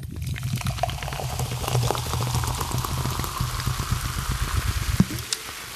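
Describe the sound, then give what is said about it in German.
A drink is poured steadily from a can into a glass for a second time, with a continuous fizzing, bubbling rush and crackle of foam building up, ending with a couple of clinks near the close. Nobody speaks. “Ähm, ja, ich gieße es natürlich noch einmal ein.”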